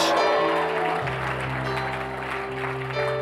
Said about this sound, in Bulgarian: Нали някой ръкопляска така?